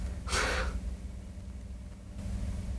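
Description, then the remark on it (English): A faint, steady low droning rumble of a helicopter passing overhead outside, with a brief breathy exhale near the start and no talking. “There's a freaking helicopter right now.”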